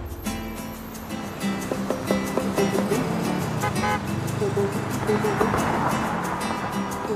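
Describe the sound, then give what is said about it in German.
A jeep rumbles along through busy, packed city traffic in Bogota in the mid-1990s, a steady, loud wash of engine and road noise with short tonal blasts like horns and indistinct voices mixed in throughout. “rumpeln mal wieder mit dem Jeep fröhlich durch die berstend volle Stadt.”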